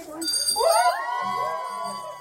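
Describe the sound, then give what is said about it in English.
A remission bell is rung loudly at the University of Iowa Children's Hospital in Iowa City by a boy who beat leukemia. Its bright metallic clang rings out and lingers with a shimmering decay, while faint voices murmur softly in the background. “Only now he can say he beat it, ringing the bell to remission.”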